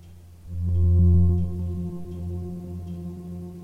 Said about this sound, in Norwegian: Underveis piper det i senderen han alltid bærer med seg.